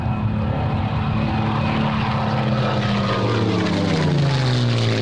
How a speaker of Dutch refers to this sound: Nou, dat dus. Hoor je hier de Daimler motor van een van de latere modellen BF109.